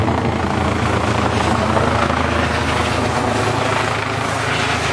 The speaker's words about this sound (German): hat sich gerade ein Polospieler verletzt und der ADAC kommt mit dem Notarzt. Die landen jetzt hier mal eben. Hubschrauber. Hub, Hub, Hubschrauber-Einsatz.